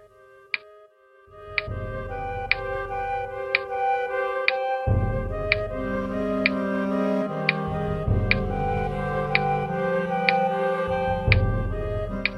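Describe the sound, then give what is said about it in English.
A clock ticks steadily, roughly once per second, its crisp ticks sitting over a low, sustained musical drone that swells in after the first second. “The clock indicated that several hours had gone by”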